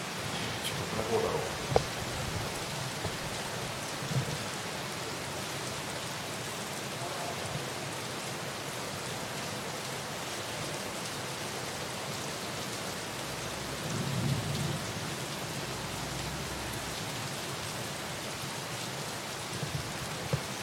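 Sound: rain with rumbling thunder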